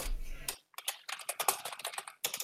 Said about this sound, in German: Ich merke schon, es wird auf der Schreibmaschine gerade notiert. Genau, ich habe gerade alles reingeschrieben, dass man das nicht vergessen.